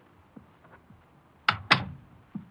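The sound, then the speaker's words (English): A door opens as someone comes home to a lodging in downtown Los Angeles: a few soft clicks, then two sharp, loud latch-and-thud knocks in quick succession, followed by a faint bump as it settles. No one speaks. “One day I came home, I opened the door, and went in.”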